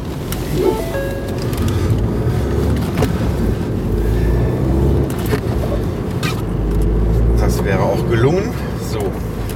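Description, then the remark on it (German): A steady, loud engine and road rumble from inside a moving car as it carefully merges back into traffic, continuous throughout, with occasional brief whooshes of passing traffic and a voice speaking at times over the drone. “Also weiter im Text, sobald ich hier vorsichtig mich wieder in den Verkehr eingefällt habe.”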